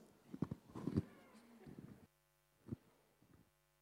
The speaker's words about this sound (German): Entschuldigung, ich muss mal ganz kurz meine Nase putzen.